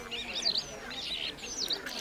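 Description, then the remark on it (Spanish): Blue jays, finches, sparrows and starlings chirp and twitter in quick, overlapping bursts on Sherbrooke Street in Montreal in summer, bright high-pitched calls repeating across the two seconds against a soft outdoor hum, fairly quiet. “Solo se escuchan a los blue jays, pinzones, los gorriones, starlings”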